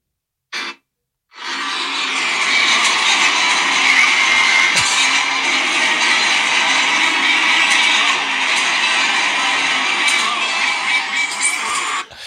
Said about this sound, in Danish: det er jo lyden af en arkadehal